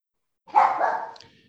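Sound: dog barking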